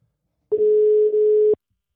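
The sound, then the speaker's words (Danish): A single steady electronic ringback tone of an outgoing phone call placed to a friend, lasting about a second, clear, with silence before and after and no one speaking. “Han hedder Henrik, og ham ringer vi til nu, så vi kan komme i gang med dagens afsnit”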